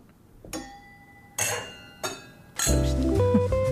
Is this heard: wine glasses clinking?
yes